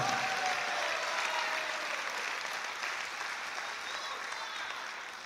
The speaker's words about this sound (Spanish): Dele fuerte ese aplauso al Señor, hermano.